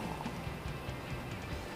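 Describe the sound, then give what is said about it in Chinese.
Cola is poured from a bottle into a cup, making a steady, quiet splashing rush with soft irregular glugs and crackling bubbles throughout, no voices. “当我打开它，倒进这个杯子里面，”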